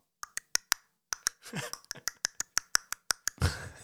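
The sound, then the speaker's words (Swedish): A voice imitates a stork's classic beak-clattering call with a rapid series of sharp, dry clicks in quick rhythmic bursts, fairly loud, broken by a short breathy exhale. “De gör ju ett sånt där, deras klassiska läte är ju lite sånt där klappande.”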